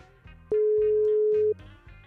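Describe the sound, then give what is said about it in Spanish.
A telephone ringback tone sounds once during an outgoing call: a loud, steady one-second beep that stands out over faint background music. “Estamos llamando.”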